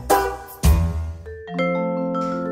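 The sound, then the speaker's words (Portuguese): A vibraphone plays a few mallet strikes, two sharp attacks followed by sustained, shimmering tones that ring out and overlap, played alone. “É o vibrafone tem um aspecto semelhante ao do xilofone.”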